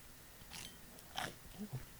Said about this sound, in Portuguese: Deixa eu dar uma mordida aqui. Oh.